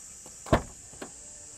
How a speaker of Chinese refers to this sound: 那包含非常好用的脚踢感应尾门